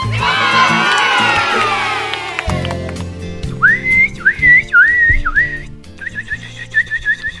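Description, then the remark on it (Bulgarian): Loud shouting and cheering from a group of children gives way to a person whistling a bird imitation: a few warbling, sliding phrases, then a quick run of short repeated chirps. “Ох, вече и птици ли ще имитираш?”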